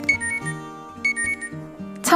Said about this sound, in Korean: 매일 새벽 4시 알람이 울립니다.